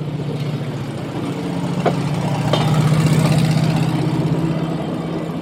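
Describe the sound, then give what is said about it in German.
The engine of a small rail car, a car-like vehicle on rails standing on a turntable, idles steadily, a low rumbling drone with a constant pulsing hum, joined by a couple of faint clicks partway through. “Hören wir, hören wir mal das Schienenauto.”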